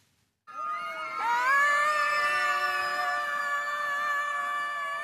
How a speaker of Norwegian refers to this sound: Slik hørtes det ut da barn og voksne skrek av full hals i det som trolig var verdens første skriktog i Løten i går kveld.